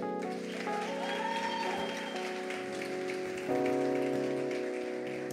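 A crowd claps steadily and loudly to welcome a family, a dense patter of many hands, with sustained musical tones underneath that swell slightly partway through.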